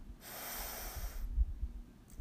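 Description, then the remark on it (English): A single deep breath drawn in through the nose, an airy hiss lasting about a second, then near quiet with only a faint low rumble. “Take a deep breath in”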